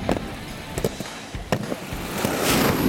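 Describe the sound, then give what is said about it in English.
A rushing whoosh of rocket skates builds to a loud, hissing roar as someone zooms past, with a few sharp clacks and rattles scattered before it. “Something just blurred past me, and the wind almost knocked me over.”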